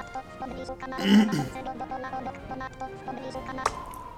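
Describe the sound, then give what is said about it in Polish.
A short audio-game transition sound effect that signals moving to another location on the map: a brief, swelling whooshing burst over a steady tonal hum, followed later by a sharp click. No one speaks. “To jest dźwięk, ja mogę Wam to wytłumaczyć po swojemu, to jest dźwięk, który po prostu oznacza przejście do innej lokacji, bo tak jakby cała y, mapa składa się jakby z takich lokacji”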